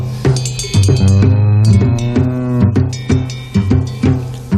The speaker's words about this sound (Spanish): Así que vamos a escuchar una canción infantil.